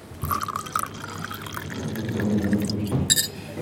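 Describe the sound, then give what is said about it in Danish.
Red wine is poured into a glass, a steady gurgling stream that rises in pitch as the glass fills, ending with a brief clink. “Og skal du have rødvin?”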